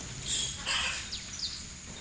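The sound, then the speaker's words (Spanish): Several high, thin calls and chirps of various birds in the Amazon rainforest sound together over a steady insect-like hiss, with brief sweeping whistles; a busy, fairly quiet chorus with no voices. “Visualizamos las comunidades indígenas a lo largo de la carretera y junto a ellas los sonidos de las diversas aves que forman parte de la mágica Amazonas”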